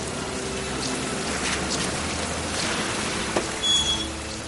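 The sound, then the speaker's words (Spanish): Heavy torrential rain pours down in a steady, dense rush that never lets up, at a bridge on Adams Street as a black car arrives, with a faint brief high-pitched whine near the end and no voices. “Llega un coche negro, llueve torrencialmente.”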